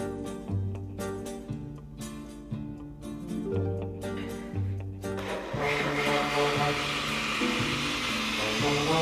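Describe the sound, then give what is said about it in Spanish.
A blender grinds chili peppers with a little salt and a little water. Its steady motor whine pulses slightly at first, then swells about halfway through into a louder, rougher, continuous grinding roar. “Ahora voy a moler el chile con todo, le voy a poner poquita sal, con todo lo que le agregamos aquí, se va a moler el chile, voy a poner poquita agua porque está muy caliente el caldo y se puede descomponer la licuadora.”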